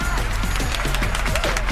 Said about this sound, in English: All right. All right. Hand claps for everyone. Welcome into the show.